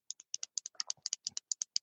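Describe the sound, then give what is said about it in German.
Rapid series of sharp plastic clicks, about fifteen in under two seconds, often in quick pairs, like the top button of a stylus pen being pressed repeatedly. No talking. “Ja, wie ein Kugelschreiber. Genau, der hat oben so einen kleinen Knopf, ja, und dann sieht er tatsächlich aus wie so ein Blitzdings.”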